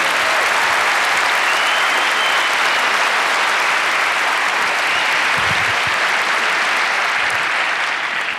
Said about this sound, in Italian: Fate un grande applauso al ragazzo che ha vinto il gioco.